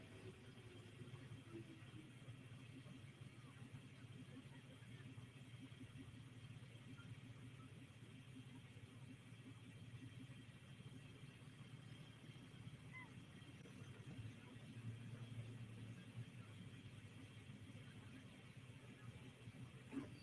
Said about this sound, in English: Maybe just some plumbing on the pressure side of the turbocharger, but something definitely went pop on that tractor and wreaked some havoc under the hood there as they had a runaway. The tractor would not shut off.